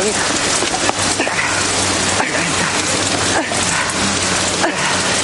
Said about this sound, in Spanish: Oye, déjalo que nos vamos a empapar, Y a mí me gusta la lluvia. Oye, pues a mí no, ¿sabes?